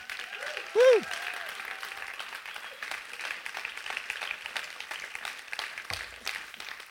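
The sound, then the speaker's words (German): Sustained applause from a large audience for the Act team on stage, steady and dense throughout, with a brief whistle-like tone near the start and a few louder claps rising out of the crowd. “einen riesen Applaus, sie sind stellvertretend für das Act-Team da.”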